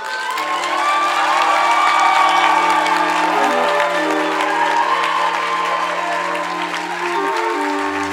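A large audience claps and cheers steadily for several seconds, dense applause with shouts and whoops mixed in, sustained and loud throughout with a sustained musical tone underneath.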